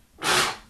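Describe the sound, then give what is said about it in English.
A single sneeze, a sudden burst of breathy noise that swells quickly and fades within half a second, with no talking around it. “bless you. I warned you.”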